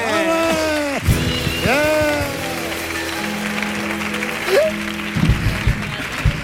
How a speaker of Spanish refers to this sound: Fuerte el aplauso para los patrocinadores.